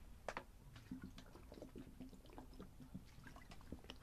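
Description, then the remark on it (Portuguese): Water is poured, a gurgling, splashing stream with small clinks and drips for a few seconds, followed by faint sipping sounds during a water break. No one speaks. “Aproveita para fazer uma pausa de água.”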